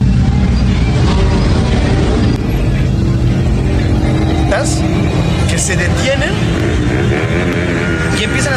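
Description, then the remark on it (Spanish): Loud engines roar and rev in drag-race starts in street traffic, a dense, continuous rumble filling the whole stretch while a voice speaks briefly over the noise. “una serie como arrancones, empiezan a, pegarle a sus.”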